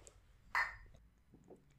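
A single bright clink of glasses touching in a toast, a short ringing tap that fades quickly, with faint low murmuring and a soft clatter afterward.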